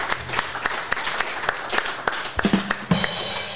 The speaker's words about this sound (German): Hey, aber einen Applaus hat es nochmal verdient, oder?